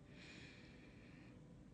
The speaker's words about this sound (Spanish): Entonces vamos hoy con la respiración. Pongan sus manos en el vientre. Vamos a inhalar.